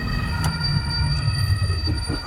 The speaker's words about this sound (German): Das war eine Bremse ja